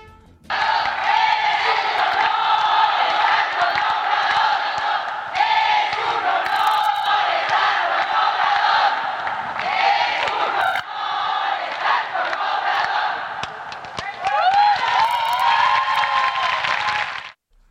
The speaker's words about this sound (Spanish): Luego de la mañanera en Palacio de se llevó a cabo un evento por el Día Internacional de la Mujer, mujer, en donde las mujeres quedaron de lado, pues las asistentes se dedicaron a echarle porras a López Obrador. Escuche usted.